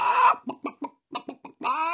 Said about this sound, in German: Wieso bringst du denn ein Huhn in den Fahrradladen?